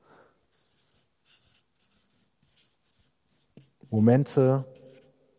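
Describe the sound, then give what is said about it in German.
A marker pen that is running dry squeaks and scratches across a surface in short, repeated, steady strokes, before a person briefly speaks near the end. “ah, die Stifte wollen nicht mehr.”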